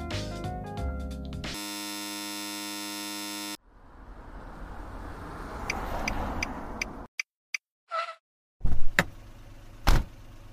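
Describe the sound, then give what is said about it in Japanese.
A string of taxi sound effects for the radio drama "Taxi" in the Saji-cho Theater segment, with no talking: a short tonal jingle, a steady buzzing tone, a few seconds of engine and road rumble, then sharp clicks and door-like thumps. “それでは早速お送りいたしましょう本日の佐治町劇場は大森さん作「タクシー」”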